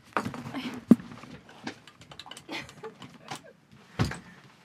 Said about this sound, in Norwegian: Jeg skal lukke døra til Kristina.